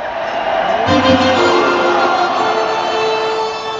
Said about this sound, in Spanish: Eventualmente la gente sí empieza a gritarle al portero, muy a pesar del sonido local